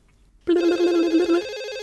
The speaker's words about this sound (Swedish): Vi eh, får en liten känsla av att Casey kanske är hemma själv. Så mm. telefonen ringer.